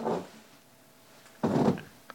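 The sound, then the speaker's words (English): Two short, muffled squeaks from a chair cushion insert, one soft and one louder and longer, with a rubbery fart-like quality, followed by a faint click. No one speaks. “that is a, a, a little insert that I put in my chair here to. Uh, Make me feel better.”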